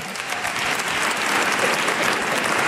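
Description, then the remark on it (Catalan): Sustained applause from an audience for a singer, a dense steady wash of many hands clapping at an even, fairly loud level throughout, with no talking over it. “Un aplaudiment per ….”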